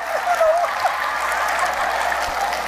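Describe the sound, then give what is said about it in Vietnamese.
An audience breaks into steady applause, a dense wash of many hands clapping that holds evenly throughout at moderate loudness, with no one speaking over it. “Ê liệt dương có gì vui đâu mà vỗ tay”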